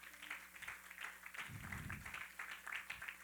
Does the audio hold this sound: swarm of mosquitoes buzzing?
no